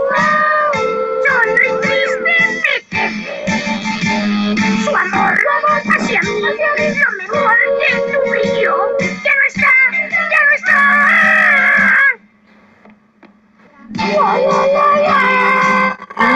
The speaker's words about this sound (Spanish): estamos escuchando el tema de Camila cuando se perdió en el capítulo de los Mopes Baby, llorando todo el mundo, Gonzo, Fossi, Peggy, Kiko, Kika, Animal, todos llorando por la pájara de Gonzo, Camila